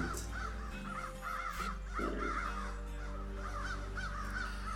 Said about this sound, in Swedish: ni hör över honom där hur de här stora förvuxna kråkorna skriker där uppifrån.